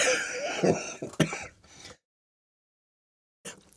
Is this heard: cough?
yes